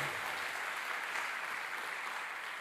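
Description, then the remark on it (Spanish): Sustained, dense applause from a church audience for the Lord, a steady wash of many hands clapping at an even loudness throughout, with no voices standing out. “Dele fuerte ese aplauso al Señor.”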